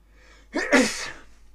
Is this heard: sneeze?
yes